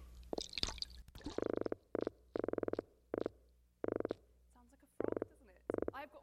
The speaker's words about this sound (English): This is a thing called the, the Atlantic croaker. Again, good name.